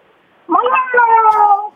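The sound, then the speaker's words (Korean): A person's voice imitates a cat, giving one drawn-out, nasal meow with a slight break partway through. It is fairly loud and alone, lasting just over a second against near silence. “그리고 이제 고양이가.”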